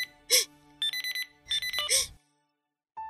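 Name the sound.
mobile phone ringtone ringing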